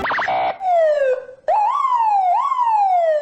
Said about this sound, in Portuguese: Liga a sirene aí, vai!